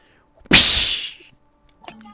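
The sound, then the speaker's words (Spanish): A single sharp whip lash cracks loudly, its harsh snap trailing off over about half a second, followed by a brief faint sound afterward. “cuando veo cómo les dan latigazos”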